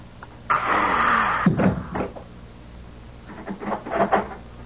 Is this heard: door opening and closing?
yes